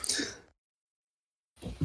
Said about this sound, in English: He's sneezing now. must have been a dusty backpack.